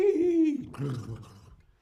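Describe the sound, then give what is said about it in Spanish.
A horse neighs once: a short, steady whinny with a bright tone that breaks into a rough, breathy sputter and fades out. The call lasts under two seconds and no one speaks. “Un caballo relincha”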